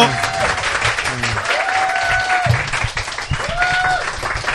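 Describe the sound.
Steady applause from a studio audience welcoming a sea captain guest onto a broadcast show fills the whole stretch, dense and continuous, with a few voices and a rising musical tone or whoop threading through the clapping.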